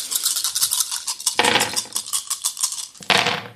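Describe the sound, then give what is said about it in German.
Dice rattle and clatter in a rapid, continuous stream of sharp clicks, with two louder bursts of tumbling partway through and near the end. No voices. “So, jetzt wisst ihr alles, was ihr würfeln könnt.”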